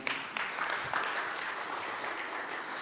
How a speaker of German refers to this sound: Ein Applaus für den lieben Herrn.